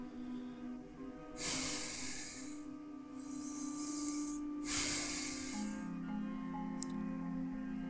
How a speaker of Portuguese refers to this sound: E ao se aproximar do seu quarto, ela ouviu como se fosse um suspiro de uma pessoa.